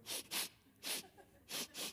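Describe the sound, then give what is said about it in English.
Someone blows their nose in five short, forceful, hissing bursts of air: a quick pair, a single blast, then another pair. Fairly loud, with no talking. “You can totally blow, blow your nose right now.”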